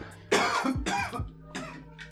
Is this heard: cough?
yes